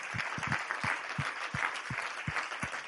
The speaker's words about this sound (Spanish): Recibe este aplauso en el nombre de Jesús. Amén, amén.